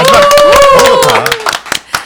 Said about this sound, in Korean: 아, 예. 박수 한번.